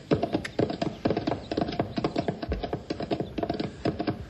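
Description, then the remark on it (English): Hooves clip-clop steadily on a hard surface as riders set off on horses including Storm and King, several horses' footfalls overlapping in a quick, uneven rhythm of sharp, bright knocks, fairly loud throughout with no voices. “Now, the way I figured, we can ride a good part of the way down, and then we'll have to go on foot. Come on, Storm.”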